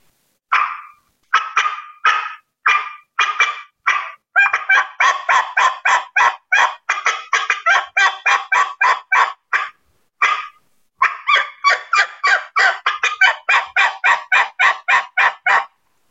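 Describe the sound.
Turkey hen calls, likely made with a hunter's call, sounding like two different hens talking to each other: one doing sharp, rapid cutting while the other yelps steadily and rhythmically, loud, for about sixteen seconds with brief pauses.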